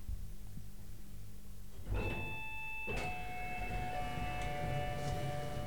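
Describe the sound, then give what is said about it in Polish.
Elevator doors opening at the ground floor onto a courtyard: a steady low hum, then a clunk with a bright ringing chime, a second thud with sustained tones, and a rumbling mechanical slide continuing to the end. “I teraz te drzwi, przed którymi stoję, powinny się otworzyć.”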